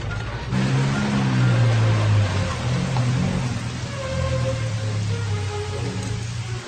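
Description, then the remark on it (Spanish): Steady rain falling at night hisses without a break, a dense wash of noise with a low, droning rumble underneath, like an engine idling. No voices are heard. “Llueve, es de noche.”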